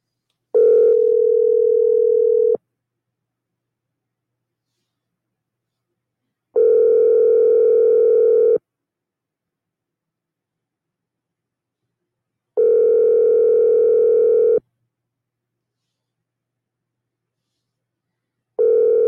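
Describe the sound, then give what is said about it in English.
A phone ringback tone repeats on the line, steady two-second rings separated by four-second silences, four rings in all with no one picking up. Clear and fairly loud, no voices. “He's not going to answer.”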